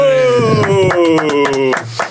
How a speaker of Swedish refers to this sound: Med oss för att grotta ner oss i dessa och många andra frågeställningar kopplat till ämnet har vi dagens gäst som vi nu välkomnar med en stor applåd.